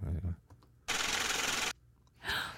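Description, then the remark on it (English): A sustained, loud papery riffling lasting nearly a second as paper money, thirty-seven dollars, is shuffled together on a counter, with softer rustles before and after and a voice murmuring at the start. “That was a long little shuffle.”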